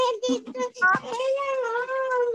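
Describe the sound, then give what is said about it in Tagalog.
A host's child's high-pitched voice chatters and squeals loudly and continuously in the background, with bright, wavering tones and brief breaks, sounding noisy and excited. “Sabi ni Jonas, pakita, patahimik daw muna yung bata dyan.”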